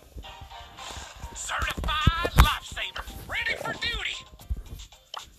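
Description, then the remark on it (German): A phone drops onto someone's face with a short, dull thud, surrounded by strained vocal sounds and exclamations from the person. “Jetzt gerade auf die Fresse mein Handy gefallen.”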